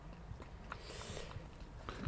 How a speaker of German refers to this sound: Der Hund ist wieder da. Hallo Hund. Ja, äh, sie war irgendwo, lag irgendwo im Gemüsebeet, ja, oder?